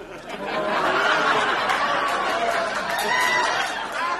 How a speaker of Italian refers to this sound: Ma, ma, metti pure le risate finte.